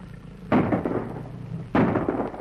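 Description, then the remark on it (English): Two loud bursts of gunfire from a gun fired at a charging leopard, about a second apart, each a sharp blast followed by a long rumbling, crackling tail. No voices. “By Jove, I say, you poured half the Bally magazine in, didn't you?”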